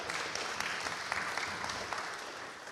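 A group of people applauding those who did readings, a dense, steady patter of many hands clapping that holds at an even, moderate level for the whole stretch, with no voices standing out.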